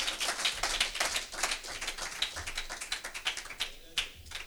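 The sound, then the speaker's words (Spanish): A church audience applauds God as King of Kings, Lord of Lords, with steady, dense clapping that fills the whole stretch, then thins out near the end into a few scattered individual claps. “Denle fuerte aplauso al Rey de Reyes, Señor de Señores.”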